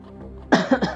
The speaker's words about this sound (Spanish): ah, no sé qué me, no sé qué traigo, que ando tosiendo mucho eh, desde que llegué de la universidad.